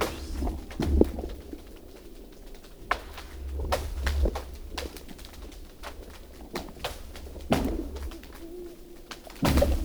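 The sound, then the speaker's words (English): Frozen lake ice, more than two feet thick, fracturing as it expands: sharp, booming cracks and pings ring out every couple of seconds over a deep low rumble, some loud, others softer, with no voices. “And the sounds that you hear The sounds are ice as it expands.”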